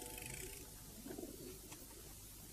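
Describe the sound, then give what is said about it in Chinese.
Pigeons coo softly on top of a garage, with low, throaty burbling calls that rise briefly in the middle over a steady background hiss. No one speaks. “你们有没有看见鸽子躲在哪里？”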